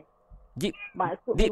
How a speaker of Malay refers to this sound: ada kucing kan di belakang anda? Oh, dia ni.